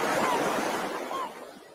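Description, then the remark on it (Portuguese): A steady, broad wash of ocean surf rolling onto a beach, even, easing off slightly toward the end with no other distinct sounds. “Eu queria que vocês se conectassem com esse barulhinho das ondas né, que vocês pudessem trazer memórias bacanas de um dia na praia. Peço desculpas para quem tem medo de água, quem, né?”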